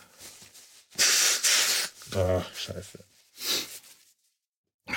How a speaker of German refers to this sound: die Schnieferei und Schnäuzerei geht wieder los.